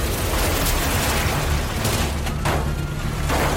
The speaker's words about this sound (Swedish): Blickar dras nu mot Mindbender och vagnen längst fram som liksom hänger på sidan. Åskådarna kan inte göra mycket annat än att bara hålla andan och se på när den gula vagnen plötsligt kraschar rakt in i en tjock stålpelare.